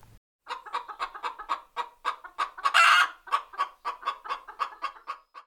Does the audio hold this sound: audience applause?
no